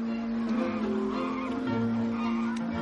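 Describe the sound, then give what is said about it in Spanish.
Geese honk steadily among chickens in a village, a dense, continuous flock chorus with overlapping nasal calls and no clear pauses, fairly loud throughout. “Caminan entre ocas y gallinas.”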